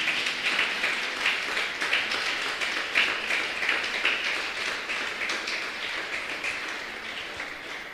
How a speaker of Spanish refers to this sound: Denle un aplauso grande a Cristo.